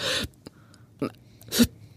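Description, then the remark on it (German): A voice imitates agonal gasping: a few sharp, isolated breathy gasps separated by pauses, the loudest near the end, close and fairly loud with no talking. “habe ich so etwas wie gar keine Atmung, jemand atmet gar nicht oder hat, wir nennen das Schnappatmung, also so”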